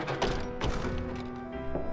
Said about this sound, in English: As the sound of the jailer's keys locking the door echoed through the dark room, she remained sitting there, wide eyed, thinking of another man like Vathek entering her cell.